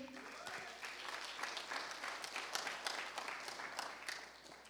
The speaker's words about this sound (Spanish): Dele palmas al Rey.